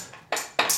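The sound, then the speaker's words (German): Two bright electronic pings from a mobile phone, one right after the other, crisp, with the second tone rising higher than the first. No one speaks over them. “Dann hätten wir die Handybenutzer.”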